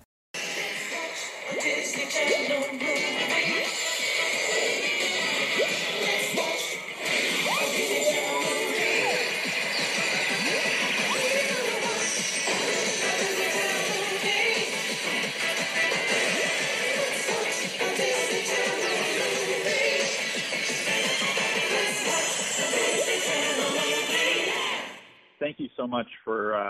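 The Disney Channel Original Movie intro music plays loudly and continuously for about twenty-five seconds, a dense, full sound that holds steady before cutting off abruptly.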